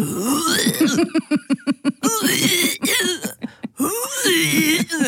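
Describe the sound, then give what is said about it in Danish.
A cat retches up a hairball, starting with a quick run of rhythmic, throaty heaves and breaking into longer, loud, strained gagging retches. “så gælder det bare om at få sparket katten ud af sengen, så der ikke bliver kastet op på dynerne”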